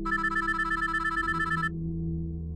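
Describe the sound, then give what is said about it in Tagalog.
A cellphone rings with a bright, rapidly pulsing electronic tone over a low background hum, repeating steadily for over a second before cutting off and leaving only the hum. “Hindi niya yon pinansin hanggang sa may tumawag sa cellphone niya.”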